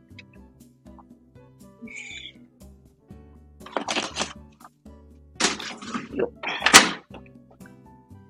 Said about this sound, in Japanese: よいしょ。ちょっと洗濯機を回しますね。